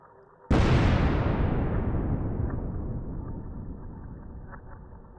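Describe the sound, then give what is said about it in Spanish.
A single loud explosion on the outskirts of a village bursts suddenly out of a low background rumble, shaking the whole area, its broad roar slowly decaying over several seconds into a long rumbling tail. “y una explosión. Una que sacudió a toda la zona.”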